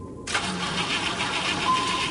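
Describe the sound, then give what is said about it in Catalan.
After a brief silence, an engine starter cranks loudly and steadily for about two seconds with a faint pulsing churn, but the motor never catches and runs. “Espera, que això no arrenca,”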